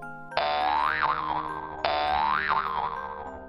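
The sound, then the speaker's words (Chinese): Two springy cartoon boings, each a bright wobbling tone that bends up and down before fading, played back to back like a bouncing jump effect for a little mole hopping up and down, with no voices. “于是啊，小鼹鼠就开始一蹦一跳起来。”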